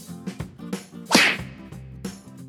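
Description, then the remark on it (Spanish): A single loud, sharp slap sound effect cracks out midway, sudden and bright with a quick swishing tail, set over a soft, steady musical background with no talking. “Y sí, puse el efecto de una cachetada para que con esto se despierten y se les quede lo más importante del podcast.”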